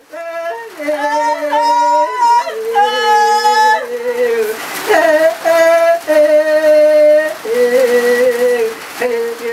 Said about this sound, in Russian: Звуки обряда инициации для девочек Джума – в норме этот обряд символизирует грусть расставания с детством, но одновременно и мысль о будущем замужестве. Эти звуки были записаны пять лет назад